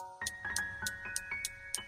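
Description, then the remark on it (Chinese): A bomb's countdown timer, set in the lower left of an iron picture frame, ticks steadily, about three sharp, bright clicks per second, each with a crisp high snap, over a sustained electronic hum. No one speaks. “而在铁框的左下方，竟然有个不停在倒数的计时器。”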